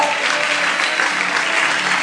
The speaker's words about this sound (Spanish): Dale un aplauso a Jesús en esta noche de nuevo.